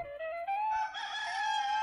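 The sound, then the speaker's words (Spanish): A rooster crows once at dawn on a grey day in Jerusalem, a long, loud, strained call that rises and holds steady for nearly two seconds, with nothing else audible around it. “Cuando los gallos anunciaron el nuevo día, triste y gris, Jerusalén se despertó sobresaltada.”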